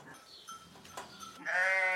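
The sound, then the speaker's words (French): Dairy ewes that are milked bleat in a sheepfold: faint, scattered calls from several animals, then one loud, wavering bleat that carries to the end. “Donc bah là, on est dans la bergerie. Ça, c'est les brebis qu'on qu traite.”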